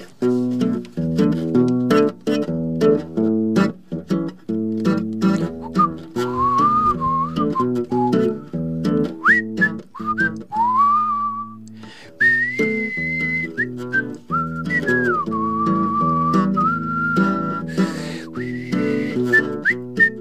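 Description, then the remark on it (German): A song's melody is whistled clearly and steadily over a full instrumental backing, the bright, pure tune gliding between notes for about twenty seconds with no singing or talking. “Ich möchte diese Gelegenheit nutzen für ein ganz spezielles Lied.”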